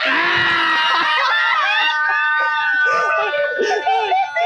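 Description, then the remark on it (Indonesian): Mongooses making mating calls: shrill, overlapping squeals and wavering chirps that keep up loudly and steadily for several seconds, with rapid pitch bends and chattery breaks toward the end. “Ini ada suara garangan yang cukup intim juga ini.”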